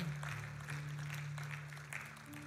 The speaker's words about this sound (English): Somebody give a clap offering of praise in this place today